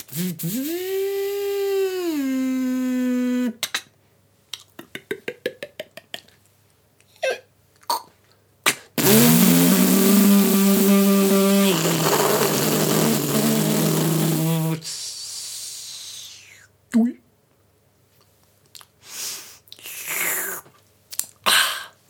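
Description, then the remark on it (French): A coffee machine makes a lungo from ground beans: a motor whines upward in pitch, a series of clicks and rattles follow, then a loud buzzing pump drone lasts several seconds before fading into scattered clicks. “La machine à café. Voilà, la machine à café.”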